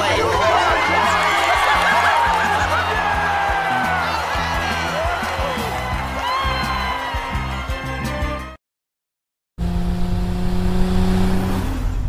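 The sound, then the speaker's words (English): A car engine revs loudly and steadily in a Super Bowl TV commercial for Tide, under a busy mix of snickering laughter and voices, then cuts briefly to silence before a steady engine drone returns. “Yeah, just your typical Super Bowl car ad.”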